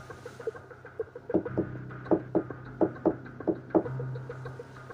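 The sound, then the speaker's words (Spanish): Soft knocking on a wooden door, a series of muffled taps in quick pairs, about four double knocks, over a low steady hum with no voices. “mientras cabeceaba, casi dormitando, de repente se oyeron unos golpeteos, como si suavemente tocaran, tocaran a la puerta de mi cuarto.”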